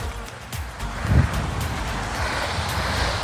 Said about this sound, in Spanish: Tengo que apurarme porque vienen carros.